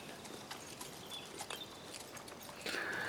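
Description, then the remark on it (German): Horse hooves clip-clop as a stallion is ridden at an unhurried walking pace, a handful of soft knocks spaced fairly evenly over a faint background hiss, with a brighter swell of noise right at the end. “Ähm, du bekommst dein Pferd an die Hand und äh, ja, kannst dann dahin reiten.”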